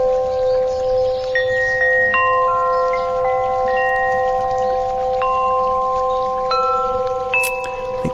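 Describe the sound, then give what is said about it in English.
Wind chimes ring out at scattered moments, their clear tones at different pitches lingering and overlapping, over a steady, soft rush of a babbling brook. No one speaks. “Wind chimes babbling brook.”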